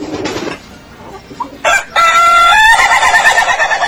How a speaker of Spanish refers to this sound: ese, ese, ese sonido de verdad del gallo no es mentira. eh. No, Sí, es estamos el gallo. poniéndonos, estamos bromeando, pero el, el- es el canto de un, de un gallo. Al principio es así, ¿ve?